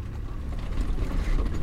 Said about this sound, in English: Also ich weiß ja nicht, ob man es hört, aber ich werde hier ganz schön durchgeschüttelt in einem Truck. Und es geht hier mitten durch den Busch ähm, an, vorbe vorbei an manchmal abgebrannten Flächen